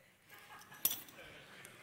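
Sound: keys jangling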